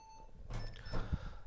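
A landline telephone rings with a steady electronic beeping tone, fairly quiet, while soft muffled rustling and a low thump sound beneath it.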